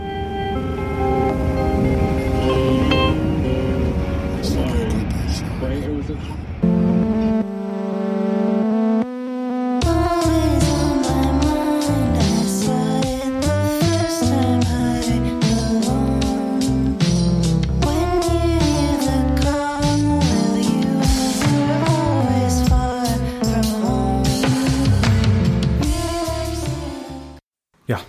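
A loud, dense music track plays throughout, with sustained harmonic layers and steady rhythmic hits, briefly dropping to a low thin passage before the full band surges back in.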